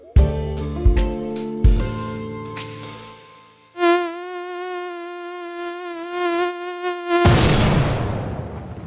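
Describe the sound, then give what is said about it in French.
A loud mosquito whine drones steadily near the ear in the middle of the night for several seconds, wavering slightly in pitch, after a few deep booming thuds and before a sudden rush of noise. “un moustique qui vrombit en pleine nuit près de mon oreille.”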